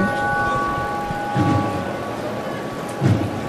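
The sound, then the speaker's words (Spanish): The third strike of a tubular bell, the bell of the three falls, rings with a steady, sustained metallic tone that lingers over a rumbling, rain-like background, broken by two dull low thumps. “Tercero.”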